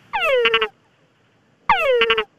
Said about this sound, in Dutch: Ah, dat is dus de, boskikker. Dat is kort.